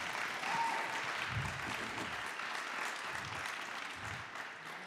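An audience applauds steadily for the whole stretch, a dense wash of many hands clapping at an even, fairly loud level with no voices standing out.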